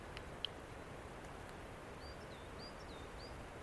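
bird, european robin singing

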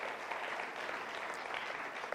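crowd, church audience applauding

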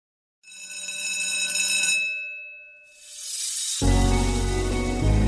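signal or alarm, bell ringing

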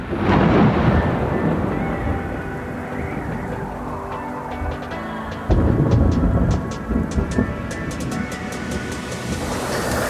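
nature, rumbling thunder

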